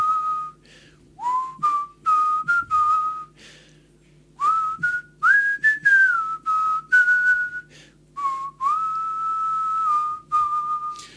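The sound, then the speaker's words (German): A person whistles a slow, wistful melody alone, clear, with sustained notes gliding between pitches and a brief pause midway before the tune resumes. “das ist der Sound, aus dem Revolutionen gemacht wurden, äh, 1989 und zu Beginn der 90er Jahre. ….”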